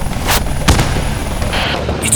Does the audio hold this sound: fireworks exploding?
yes